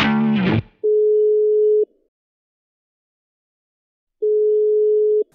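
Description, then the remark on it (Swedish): A short burst of dialing beeps, then a telephone ringback tone as a call is placed to the Swedish state agency MSB: two steady, mid-pitched tones about a second long, separated by a pause of a couple of seconds. No one speaks. “Men du undrar om vi ska prova att ringa, eh, ringa MSB och höra oss för lite kring det?”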